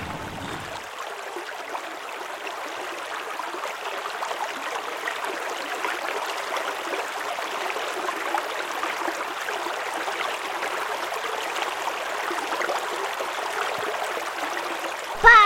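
A pond pump keeps water trickling and splashing in a steady, continuous stream, moderately loud, with no voices over it.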